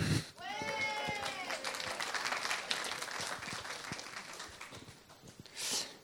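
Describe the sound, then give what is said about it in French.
A crowd claps steadily for several seconds, a dense crackling wash of hands, with a high wavering whoop or cheer near the start and a brief louder surge just before it ends. “Voilà, eh bien, tu vas regarder ton voisin et tu vas l'applaudir aussi.”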